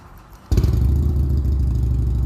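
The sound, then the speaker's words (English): After a quiet half-second, a Harley-Davidson motorcycle engine is cranked up as someone leaves, suddenly rumbling to life and settling into a loud, steady, deep throbbing idle with no voices. “i'm grateful for the sound of harley davidson's did you just hear that?”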